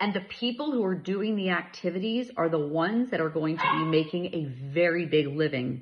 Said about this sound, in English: You may hear my puppy in the background. Obviously, these are new noises now that we all work from home.